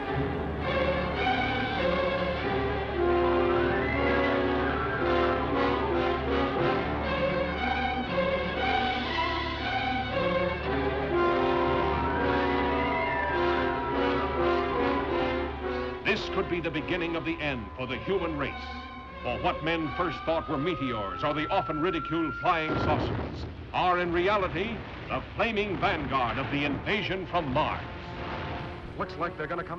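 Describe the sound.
Audio from the trailer for the 1953 film The War of the Worlds, an adaptation of the H.G. Wells story: loud, dramatic orchestral music with booming blasts and bursts of gunfire, a long eerie gliding tone midway, and a voice speaking over the din.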